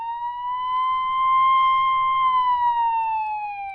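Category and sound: vehicle, police car siren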